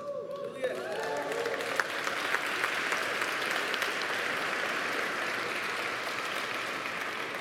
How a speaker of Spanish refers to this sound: Ahora, eso fueron las mamás aplaudiéndole a los papás. Ahora los papás, apláudanse ustedes también.